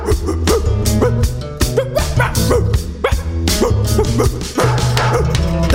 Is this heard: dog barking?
yes